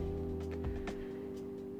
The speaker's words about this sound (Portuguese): Hoje, obviamente, teremos alguns ruídos de motos e carros passando,